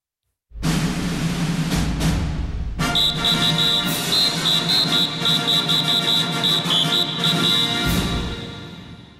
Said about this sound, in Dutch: jij maakt het gebaar van een fluit, dus die ga ik maar proberen in te drukken.